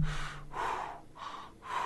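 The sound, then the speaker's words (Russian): A person mimes blowing up a balloon: three or four strong, breathy puffs of air in a steady rhythm, each a loud hissing exhale separated by short pauses, with no talking. “вот ты дул шарик вот так.”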